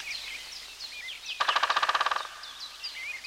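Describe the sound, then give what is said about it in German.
A woodpecker drums from the treetops of a forest at winter's end, a quick, steady roll of about fifteen sharp taps, lasting under a second, ringing out over soft chirping birdsong that continues before and after the burst. “Da tönt ein merkwürdiges Hämmern von den Wipfeln herab.”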